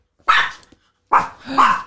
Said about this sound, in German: Hilfe! Was ist denn jetzt passiert? Ist jetzt, ist jetzt ein Hund am Laden vorbeigegangen. Gott, habe ich ja erschreckt.